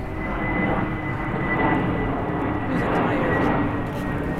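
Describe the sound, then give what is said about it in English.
A low, steady roar of an airplane on the SeaTac airport flight path passing overhead at South Park Marina on the Duwamish River, across from Boeing Field; broad and rumbling with a faint high whine, loud and continuous throughout without any clear rise or fade. “We're directly across from uh, Boeing Field and in the SeaTac airport flight path, which you'll hear many times.”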